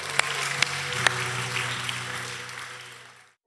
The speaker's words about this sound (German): Komm, wir geben Jesus nochmal einen Applaus.